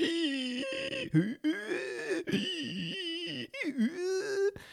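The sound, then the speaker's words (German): A person imitates the laboured breathing of a middle-aged man who, while eating cake in summer, fell from a chair and cried out after a wasp sting, with a series of strained, voiced, whimpering gasps and wheezes, rising and falling in pitch with brief breaks between breaths, fairly loud throughout. “Ähm, mittelalter Mann im Sommer isst Kuchen, fällt äh, vom Stuhl, schreit Aua äh, und atmet ungefähr so.”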